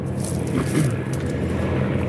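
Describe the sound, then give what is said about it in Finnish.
A helicopter passing by outdoors in Chamonix, heard as a steady, low engine rumble with a broad wash of noise that holds fairly even for about two seconds, with no voices. “Nyt meni yksi helikopteri tuosta ohi.”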